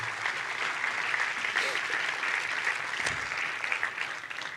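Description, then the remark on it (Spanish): An audience at a Christmas sermon breaks into sustained applause for God, a dense wash of clapping from many hands that stays steady and fairly loud for several seconds, with no one speaking over it. “Dele un fuerte aplauso a Dios por eso.”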